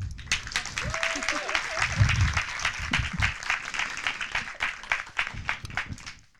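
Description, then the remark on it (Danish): An audience breaks into steady applause welcoming the Danish voices of Anna and Elsa from Disney's Frozen, many hands clapping in a dense, bright patter for several seconds, with some murmuring voices and a brief rising vocal tone underneath. “Det må vi godt klappe af.”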